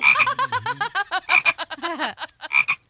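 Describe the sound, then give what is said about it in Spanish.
A toad croaks over and over in quick, rhythmic bursts, loud, each croak a short throaty rattle, with no talking; a comedy sound effect on El Show de Piolín. “Lo convirtieron en sapo.”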